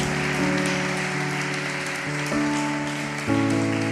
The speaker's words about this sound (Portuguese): Dá um amém aí, dá um forte aplauso a Ele, então, querido. Glória a Deus.